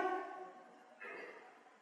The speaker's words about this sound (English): Bless you.